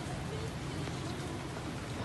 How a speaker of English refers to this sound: It's not so bad. I don't know why people are complaining. It's so peaceful out here. It's not even raining so bad.